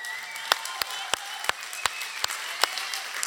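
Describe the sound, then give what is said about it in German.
A large church audience at Ecclesia applauds steadily for a few seconds to celebrate Jesus, a dense wash of clapping with sharp, louder individual claps popping out at a roughly regular pace. “Deswegen macht nochmal für Lärm für Jesus.”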